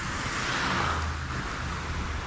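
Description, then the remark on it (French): Steady, dense roar of road traffic with a low engine rumble and broad hiss, as if many cars stream past without a break; no one speaks. “Bon alors là désolé parce qu'il y a quand même vraiment beaucoup de voitures donc j'espère que ça dérange pas trop trop l'enregistrement mais euh, je pense que ça va quand même s'entendre.”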